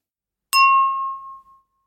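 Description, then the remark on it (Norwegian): A single bright chime, an advertising jingle from an SMB Norge advert, rings out once with a sharp metallic strike, then its clear tone lingers and fades away over about a second. No one speaks. “Jeg må få den jinglen der òg. Ha den ved inngangsdøra mi når folk kommer inn, eller et eller annet.”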